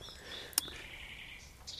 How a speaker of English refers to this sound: There's a nightingale again.